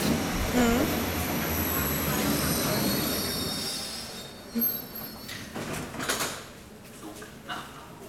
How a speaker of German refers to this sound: So, jetzt ist sie da, die U-Bahn nach Pankow. Und wir steigen ein.